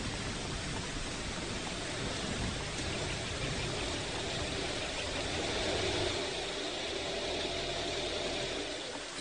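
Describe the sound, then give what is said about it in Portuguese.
A car engine idles with a low, steady rumble beneath heavy, constant winter rain, a continuous hiss with no voices, as the car waits at home for the gate to be opened so it can be put away. “Eu abro o portão para você guardar o carro.”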